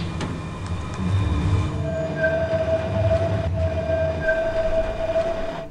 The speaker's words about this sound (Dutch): Kijk nou, nu komt er een mooie tram voorbij. Een knerpende tram. Lijn 3.